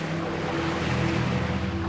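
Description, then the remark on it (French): A boat moves across ocean waves on a voyage back to Italy, a steady rushing wash of water over a low, constant droning hum, continuous with no voices. “Cette fois, ils font le voyage en bateau.”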